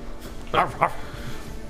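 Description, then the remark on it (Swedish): A person voices two quick barking sounds in imitation of a dog, a short "woof woof" with a brief gap between them, over quiet background. “Machicho han går fram till eh, kocken. Eh, Voffoff. Så pekar på köttet. Voffoff.”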